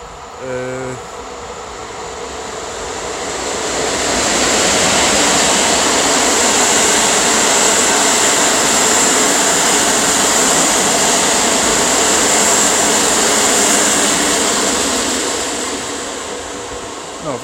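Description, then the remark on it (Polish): A train rumbles past, its broad roaring noise swelling over a few seconds, holding steady and loud for most of the stretch, then slowly fading away at the end. “Teraz pociąg jedzie, także przepraszam na chwilkę.”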